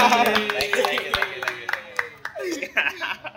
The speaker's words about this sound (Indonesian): Tepuk tangan dulu dong biar kayak podcast.